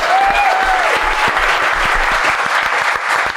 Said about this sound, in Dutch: Geef hem een keihard applaus.